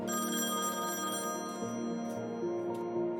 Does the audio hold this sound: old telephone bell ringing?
yes